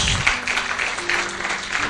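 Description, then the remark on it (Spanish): A church audience claps steadily as applause for Christ Jesus, a dense wash of many hands with a few fainter cheers and voices mixed in, holding at an even, fairly loud level throughout. “Denle un aplauso fuerte a Cristo Jesús.”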